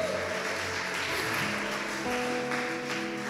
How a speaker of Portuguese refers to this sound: Levante suas mãos aí e adore o Senhor. Aplauda o Senhor, porque Ele é fiel.